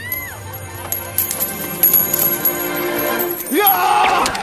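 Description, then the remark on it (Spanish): Money changers' coins jingle and scatter across a hard surface amid clattering and thumping of their tables being overturned, set against a busy, bustling background with faint crowd noise. “desparramó las monedas de los que cambiaban el dinero y volcó las mesas.”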